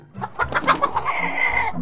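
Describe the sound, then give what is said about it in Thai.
Several chickens cluck in quick, uneven bursts, with one drawn-out higher call near the end. No one speaks. “นั่นไง เอาเข้าแล้วพวกมันคงเริ่มไม่พอใจแล้วแน่ๆเลย”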